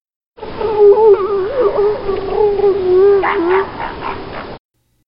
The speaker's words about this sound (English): This is a clip of what it sounds like, although these calls are from northern elephant seals, which are much smaller than the southern elephant seals. Still pretty darn big, though.